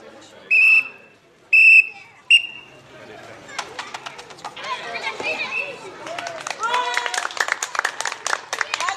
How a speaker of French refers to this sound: Allez, ceux qui voient là, n'allez pas prendre ballon devant un, devant un joueur. À trois coups de sifflet.